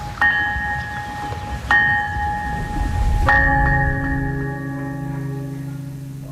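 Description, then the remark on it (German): A cast iron bell, experimentally cast at this site, is struck three times at slow, uneven intervals, each stroke leaving a sustained metallic ring that hangs on and decays over a low background rumble. No one speaks. “Also man hat versuchsweise mal die eisernen Glocken hier gegossen, aber der Klang ist kein schöner im Vergleich zu den heutigen Bronze- und Stahlglocken.”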